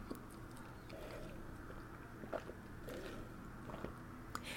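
Quiet mouth sounds of someone sipping iced coffee, with a few soft clicks and crunchy ticks scattered over a steady low background hum, and no talking.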